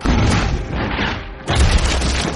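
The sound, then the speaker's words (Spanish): A yellow cannonball slams into the heavy doors of a tower with a loud boom, followed by a rumbling roar and a second heavy impact that renews the thunderous crash before it fades. “Al rato, una nueva bala voló por los aires, dando de lleno con las puertas de la torre del loco que estaba en nuestra retaguardia.”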